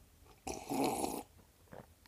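A single rough, raspy cough, one loud burst lasting under a second, followed by quiet breathing and small faint sounds. No one speaks.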